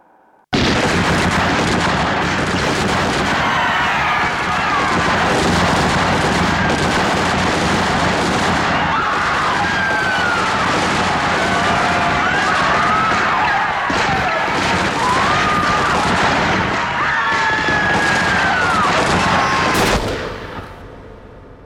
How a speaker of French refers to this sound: Général Dyer, est-il vrai que vous ayez ordonné à vos hommes de faire feu au cœur de la foule massée devant vous C'est exact.